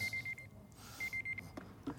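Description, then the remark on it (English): A timer alarm beeps in two quick bursts of rapid, high-pitched pulses separated by a short pause, signalling that a speaker's time is up, fairly faint against a low background hum. “My time is up.”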